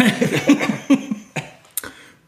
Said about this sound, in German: Ich huste mal kurz in deine Richtung.